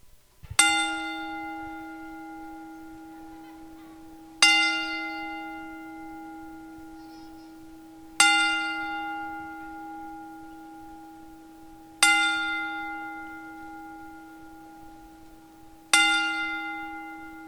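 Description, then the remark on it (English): A wrestling ring bell tolls five times at a slow, steady pace, about four seconds apart, each strike loud and clear with a long, shimmering decay and no voices over it, as part of a ten bell salute for the late wrestler Superstar Billy Graham. “Uh, so here at the Cross Promo Wrestling Podcast, uh, we commence our uh, ten bell salute for the late, legendary Hall of Famer, superstar Billy Graham.”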